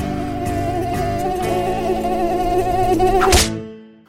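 A steady, high-pitched mosquito buzz drones for about three seconds with a slight wavering pitch, ends in a short sharp burst, then fades quickly to silence.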